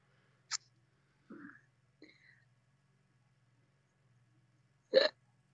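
A couple of small, sharp breathy bursts, then a loud sneeze near the end. No one talks.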